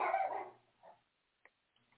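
A dog barks once, loud, followed by a softer yip and a faint click, then quiet. No one speaks.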